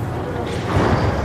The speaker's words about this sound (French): C'est le son de la chaîne de tri installée à Chagny en Bourgogne. Elle sépare les déchets organiques des ordures ménagères pour les convertir en biogaz.